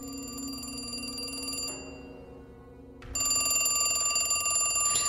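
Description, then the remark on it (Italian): A telephone rings with a call from the public prosecutor, in two bursts separated by a short pause, with a bright, buzzy electronic tone that is fairly loud. No voices are heard. “una telefonata terribile da parte del pubblico ministero cercando di avere più spiegazioni”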